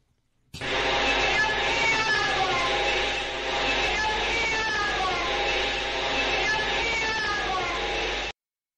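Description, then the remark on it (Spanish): An eerie psychophony recording made in an abandoned house during an investigation: a wailing, voice-like sound with sliding, cat-like tones, sustained for about eight seconds over a thick bed of steady hiss and rumble, fairly loud. “Vamos a volver eh, a escuchar esta psicofonía.”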